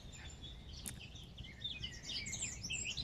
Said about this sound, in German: Hör dir diese Vogelstimmen an, diese Lautäußerung von Leichtigkeit und genieße und ja, nimm's wahr, lass dich drauf ein und du wirst sehen, mit der Zeit immer mehr, immer besser, tut's gut.